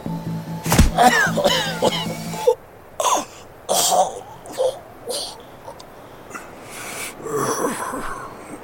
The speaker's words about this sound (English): Ava struck my throat with the handle of the gun, and I reeled, choking